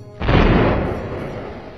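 grenade explosion

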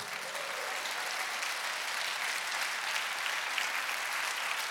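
audience applause

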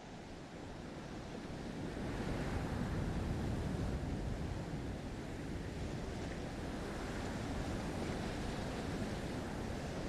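sea waves

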